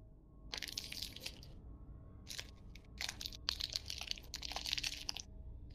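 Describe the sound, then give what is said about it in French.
Crunching of hard candies being chewed, several bursts of crisp, crackly noise with short pauses between them, fairly loud against a low steady background hum, with no talking. “Oui, c'est euh, peut manger des bonbons. On l'entend.”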